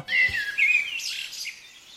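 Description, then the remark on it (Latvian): Birdsong fills a quiet city morning: a few clear, high chirps and warbling phrases, with no voices and only a faint low rumble beneath. “Katru gadu ir viens tāds rīts, kad pēkšņi tu saproti, ka Johaidī putni dziedā.”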